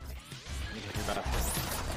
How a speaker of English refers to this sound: It's really loud, I'm sorry. oh my god. Ugh, it's broken glass. Stone Cold Steve Austin in your face. Get you woke up. Oh my god, it's so loud.